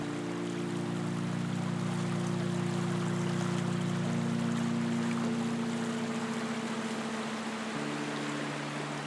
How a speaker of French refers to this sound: et ce bruit, et justement aussi cette quiétude qui règne là, avec juste le bruit de l'eau, le chant des oiseaux, quelques lézards qui furettent à côté de nous, et c'est tout.